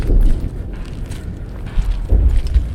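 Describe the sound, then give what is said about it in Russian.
Footsteps crunch over broken window glass in Bakhmut, a few gritty steps, with a low wind-like rumble underneath and no talking. “Вот это вот звук постоянного хруста стекол под ногами – это один из постоянных звуков в Бахмуте.”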